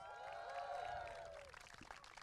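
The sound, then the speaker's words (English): A small group of WTF1 team members at the WTF1 Clubhouse lets out rising whoops and cheers, then breaks into light, scattered clapping that fades after a second or so. “Oh, a little clap as ah, well.”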